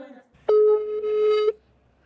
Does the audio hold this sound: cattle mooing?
no